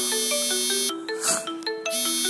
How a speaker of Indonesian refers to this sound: ini ada telepon masuk oh ternyata masih bisa gue reject sorry